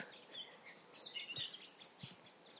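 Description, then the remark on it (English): A blackbird in a wood gives sharp, scattered alarm calls at the presence of a human, fairly faint over a quiet outdoor background with a couple of soft low thumps. “You can hear a blackbird alarming, telling everyone that there's a human here.”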